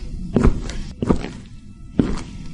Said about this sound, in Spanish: Tan pronto vuelvo a escuchar sus pisadas sobre el suelo de madera. Lo siento cada vez más cerca. Esos pasos son cada vez más intensos. Puedo imaginarme el punto exacto del pasillo en el que está a medida que avanza.